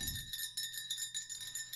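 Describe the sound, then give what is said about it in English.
A bell rings continuously with bright, high metallic tones that pulse in a steady rapid rhythm. It is fairly quiet and heard alone, with no voices. “The thing that is capturing your attention right now is the sound of the bell.”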